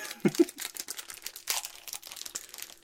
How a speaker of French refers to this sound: Non, c'est le, le papier. On va faire un test de papier.